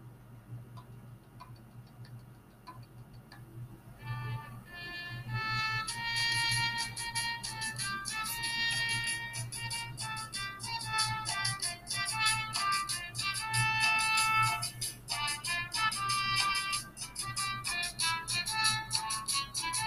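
A recorded dance song plays with a steady, bouncy percussion beat and bright melodic lines, fading in over the first few seconds and then continuing at an even, moderate volume with no talking.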